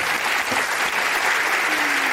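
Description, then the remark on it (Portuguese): Steady, dense applause from a crowd, many hands clapping at once in a continuous wash of sound that stays loud and even for the whole couple of seconds, with no voices over it. “Ninguém gostou, ninguém vai aplaudir.”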